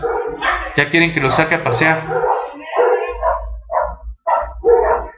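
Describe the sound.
Several of the speaker's dogs bark and yip in a quick, excited burst, then a person keeps talking over quieter bits of background noise.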